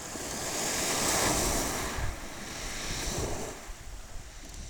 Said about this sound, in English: here on vacation from Canada at Rye Harbour Nature Reserve, listening to the water at a shingle beach,